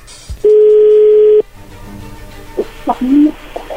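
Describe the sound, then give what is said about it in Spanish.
A steady, loud electronic telephone tone holds for about a second, then cuts off; faint line noise follows, and then a voice answers briefly. “A ver, parece que ya entró la llamada no hagan ruido.”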